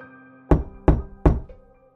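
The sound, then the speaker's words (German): Three firm knocks struck on a hard drywall, evenly spaced about a third of a second apart, fairly loud with a dull, hollow thud, over a faint steady hum. “schlug dreimal gegen die harte Trockenwand, wo ich glaubte, das Klopfen gehört zu haben”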